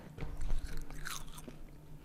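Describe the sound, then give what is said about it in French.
Crunching as dry, brittle, salted dried insects are chewed, a quick run of irregular crackly bites over about two seconds, with no talking. “C'est un peu salé et ça croustille. C'est pas mauvais. Ça se mange comme des chips devant la télé”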